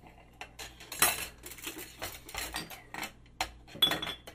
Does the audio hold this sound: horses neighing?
no